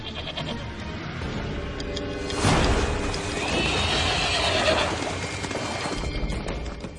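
A horse gives a loud, drawn-out whinny that rises sharply and trails off over a few seconds, set against a steady outdoor background with no one speaking.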